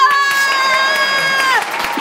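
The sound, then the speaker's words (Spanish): A crowd cheers with a sustained, high-pitched whooping cry that holds steady and then slides downward near the end, with a few faint claps scattered underneath. “Oye, sí es importante aplaudirnos.”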